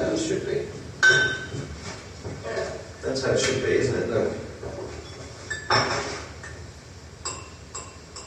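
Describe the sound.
Ceramic flower pots clink and knock together as a child moves and sets them down while his dad tries to get him to organise them, several sharp taps scattered through the scene, with people talking in the background.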